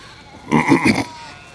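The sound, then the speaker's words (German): A single sheep bleats once, a wavering, pulsing baa lasting about half a second, clear against a quiet background, in Cologne, Germany. “Ja, ich bin seit ein paar Tagen wieder in, in Köln und es ist hier überfüllt mit Menschen und mit Schafen.”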